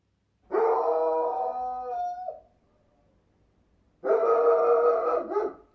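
A dog howls twice, loud: a long wavering howl lasting nearly two seconds, a short pause, then a second drawn-out howl trailing off at the end.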